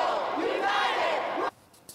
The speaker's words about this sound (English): Here's how the crowd reacted to their expulsion. Mr. Clerk, take the vote. Protesters screamed and booed and shouted their disapproval from that balcony above.